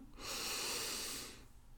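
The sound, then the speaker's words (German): A single deep breath drawn in through the nose and let out through the mouth, a steady airy rush that swells and fades over about a second, with no talking. “Atmen Sie jetzt erst einmal tief durch die Nase ein und durch den Mund wieder aus.”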